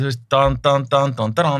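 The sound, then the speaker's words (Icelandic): A voice imitates ominous horror-movie music, singing five heavy, evenly spaced "dan" notes in a steady rhythm, fairly loud, after a brief spoken phrase. “þú veist, bara fram að því það var horrormusík eitthvað einmittið,”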